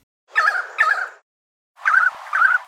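Two pairs of loud, ringing whistled calls separated by a short silence: the first pair from a 300-gram pied currawong, a predator of the imitating bird, the second a close imitation by that bird, nearly identical in tone and rhythm.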